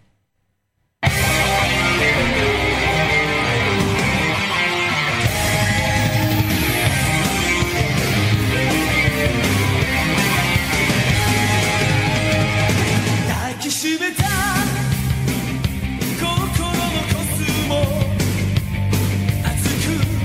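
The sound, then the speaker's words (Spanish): The theme song of the anime series Saint Seiya (Los Caballeros del Zodiaco) plays loudly after a second of silence: dense, full-band music with a driving, steady beat and a brief break partway through before it surges back. “¿Cómo sonaba esta pedazo de serie, cómo sonaba este anime que hemos traído por primera vez aquí en el Club Vintage, cómo sonaba Saint Seiya barra Los Caballeros del Zodiaco, sonaba así.”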